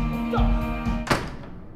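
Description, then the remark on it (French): A door is shut with a single solid thud over a steady low background hum, then it settles back to quiet. “Ferme la porte, s'il vous plaît.”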